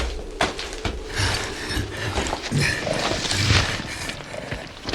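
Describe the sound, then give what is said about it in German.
A horse's hooves clatter in a dense, uneven rattle as its rider stops it, then slow and come to a stop, with creaking and rustling mixed in as he jumps from the saddle. No one speaks. “Augenblicklich stoppte Donovan sein Pferd, sprang aus dem Sattel und beugte sich besorgt über seinen Angestellten.”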